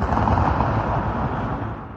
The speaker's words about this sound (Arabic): كانت مريم قاعدة ببيتها لما سمعت صوت انفجار